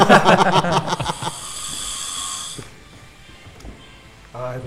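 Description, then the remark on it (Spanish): A person snoring: a quick run of rough, voiced pulses gives way to a long, airy hiss of breath that fades into quiet. It is moderately loud. “es, un poco que ronca como se ríe, ¿no?”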